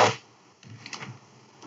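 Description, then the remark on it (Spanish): A sharp, loud keyboard click opens, followed after a short pause by a quick cluster of softer clacking keystrokes as someone plays with his keyboard, with no one talking. “Jugando mi teclado.”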